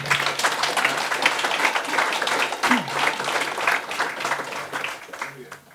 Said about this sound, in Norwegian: Gi dem en stor eh, applaus.